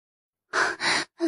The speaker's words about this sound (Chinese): 这时候，突然音响里传来忽快忽慢的喘息声，所有人都停下手中的事情，看着二楼控制台的方向。